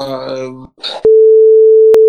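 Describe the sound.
A brief stretch of talking is cut off by a loud, steady censor beep, a single pure electronic tone that holds unbroken for about a second to the end.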